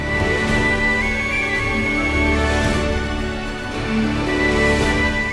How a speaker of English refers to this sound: Is Toothless's theme. the first part. You hear those low pedal sustain notes at the bottom. And that tin whistle over the top.